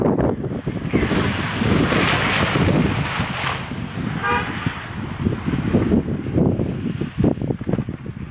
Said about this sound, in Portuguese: Tá batendo muito vento, muito tá vento, muita neve, muito frio.